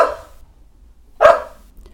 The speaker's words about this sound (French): Oh, il y a le chien qui jappe.